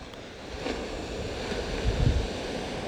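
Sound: ocean waves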